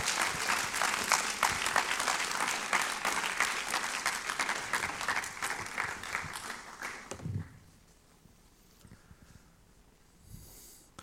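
An audience in Switzerland claps steadily for about seven seconds, a warm welcome as a guest speaker and his translator are called onto the stage, a dense burst of applause that then stops abruptly, leaving near quiet with a few faint breaths or rustles.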